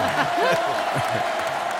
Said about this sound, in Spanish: Mm, pero bueno, le vamos a pegar ya una fuerte ovación para que se venga arriba y triunfe en su estreno.